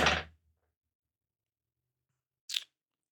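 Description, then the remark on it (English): A dog lying beside a person gnaws on a bone, making two short, crunchy bursts about two seconds apart, with quiet in between and no talking. “Sorry for the little extra noise in the background. Bucky decided to lay beside me and chew on a bone.”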